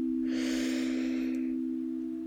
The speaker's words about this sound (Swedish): Vi tar ett djupt andetag till så du bara får landa där du är. Så andas in genom näsan, fyll upp lungor, mage, bröstkorg. Andas in.